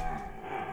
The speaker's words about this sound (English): And oh, that's my dog in the background playing with my other dog in the background. Sorry. So if you hear weird noises, that's them.